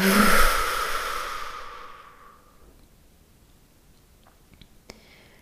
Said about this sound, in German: Lass uns mal ganz tief gemeinsam einatmen. Und geräuschvoll ausatmen.